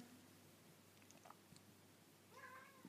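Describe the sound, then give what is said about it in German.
A single drawn-out meow from a pet cat rises near the end, moderately loud, after a quiet stretch of faint background noise with a few soft clicks; no one speaks. “Wenn du das gerade gehört hast, das war meine Katze.”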